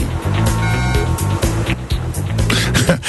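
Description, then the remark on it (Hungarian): A short radio jingle for Budapest's latest traffic news on the 90.9 Jazz station: sustained synth tones ride over a steady, pulsing low beat, blended with loud road-vehicle and engine-like effects, with no one talking. “Úgyhogy ha minden igaz, akkor most képes leszek elindítani a közlekedési szignált is.”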